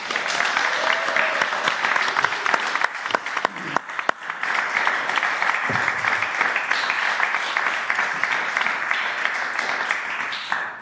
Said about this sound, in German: dann müsstet ihr bitte nochmal klatschen und zwar so richtig einfach so laut wie ihr könnt